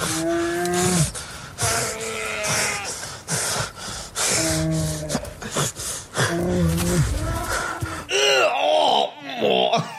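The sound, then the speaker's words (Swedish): Leonardo DiCaprio moans and groans over and over in the film The Revenant, long strained low cries with short gasping breaths between them, loud, ending in a few higher, more anguished wails. “kan vi bara få höra en stönande Leonardo DiCaprio här nu?”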